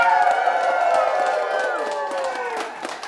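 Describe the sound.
A live audience in Tucson, Arizona cheers and whoops loudly for about three seconds, a dense wash of overlapping voices with a few claps, tapering slightly toward the end.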